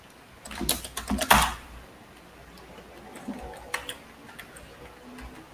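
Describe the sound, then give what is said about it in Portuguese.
Crisp clicks from a new computer keyboard come in a quick burst at first, then a few slower, scattered keystrokes after a pause, with no one talking. “é, tô apanhando com teclado novo faz tempo que eu não uso”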